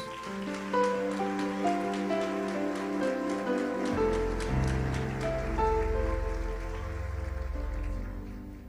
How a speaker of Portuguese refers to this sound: A igreja aplaude o Senhor. A igreja aplaude Jesus.